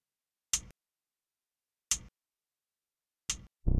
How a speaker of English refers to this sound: I shall revisit the vocals in a moment, but first let's listen to the backing track. A 909 kick drum and then some hand claps. Shaker. and some tiny little hi-hats.